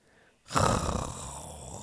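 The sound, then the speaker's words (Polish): A voice imitates a she-bear snoring loudly in her cave: after a brief quiet moment, one long, rasping, breathy snort starts abruptly and holds steady, fairly loud. “Głośno zachrapała misia w swojej jaskini.”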